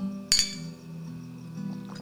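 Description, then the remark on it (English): Glasses clink together once in a toast to friendship in a movie scene, a sharp bright chime with a short ringing tail, heard over a steady low background hum with no one speaking. “I'm sending you off with a toast to our friendship I would move heaven and earth for you, mi amigo.”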